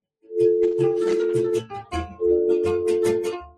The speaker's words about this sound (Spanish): Había esperado todo el día para escuchar este sonido, el tono del teléfono que la conectaba a su casa y la voz del otro lado que decía, todo va a salir bien, mija.